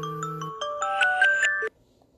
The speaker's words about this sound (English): That's my alarm.